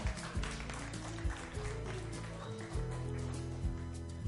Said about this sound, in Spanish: Bravo. Un aplauso,